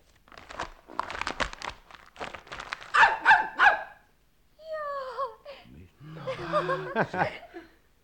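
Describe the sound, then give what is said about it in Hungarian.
A black Hungarian herding puli dog from the Hortobágy barks in a quick run of sharp yaps, then a few higher whining sounds, ending in longer, throatier barks. No talking is heard. “Egy kutya. Egy igazi élő kutya, amit a hortobágyon láttam.”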